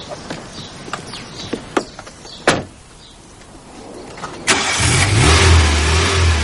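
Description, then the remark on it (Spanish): A middle-aged woman gets into her car: a few clicks and a heavy door thud, a brief quiet, then the car engine turns over and settles into a loud, steady rumble whose low pitch climbs as she drives away. “Una mujer de mediana edad le mira con recelo mientras se monta en su coche.”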